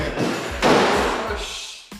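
A door slams shut with a loud bang, and a second sharp thud follows about a second later, with no voices.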